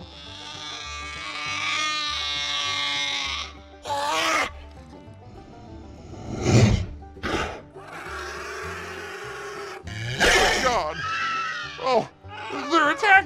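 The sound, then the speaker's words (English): High, strained screams and bleating groans erupt in several loud, harsh bursts, voices imitating lizards at Uncle Hank's Lizard Tail Jerky, with short gaps and brief speech between them. “That's the sound of some happy lizards.”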